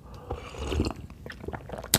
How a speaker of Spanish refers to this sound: Y pues vamos a darle un sorbocito aquí al cafecito